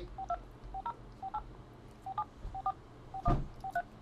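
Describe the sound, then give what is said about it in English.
A phone number is dialed, and the call goes to voicemail: a rapid string of touch-tone dialing beeps, about a dozen short tones in uneven pairs, clear, with a brief knock near the end and no voices. “He sent you straight to the voicemail.”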